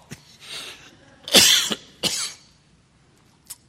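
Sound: cough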